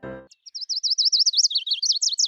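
Marbled murrelet calls ring out in a fast, steady series of about fifteen sharp, high-pitched, loud notes, following a brief low rumble at the very start.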